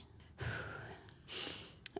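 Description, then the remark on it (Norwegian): A sharp, breathy inhale, followed by a second airy intake of breath, with no talking. “Da du pusta inn”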